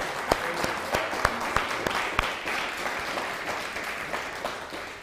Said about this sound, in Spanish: Un fuerte aplauso a, Kadosh Barujú. Santo bendito sea.